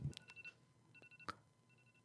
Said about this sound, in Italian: Questa è la sveglia perché stiamo Falla per raggiungere...